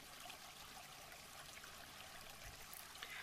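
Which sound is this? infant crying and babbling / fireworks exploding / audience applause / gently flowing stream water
gently flowing stream water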